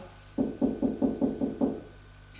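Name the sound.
knocking on a door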